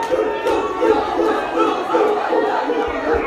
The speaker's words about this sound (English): the crowd is getting intense here here at Anchor Radio